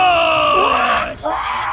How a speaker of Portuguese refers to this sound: E a ult é o combo da Dragalope com o Yordle. Ela vira uma bola para avançar quicando e o Gled é quem dá aquele grito de guerra desenfreado que faz todo mundo correr. Sem prisioneiros!